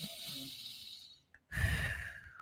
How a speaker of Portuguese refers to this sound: inspira e expira. Porque quando você inspira, você não consegue falar, porque quando a gente fala, a gente solta o ar, quando a gente inspira, o ar entra.